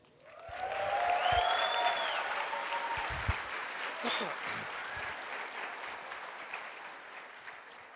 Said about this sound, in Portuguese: E eu gostaria que você aplaudisse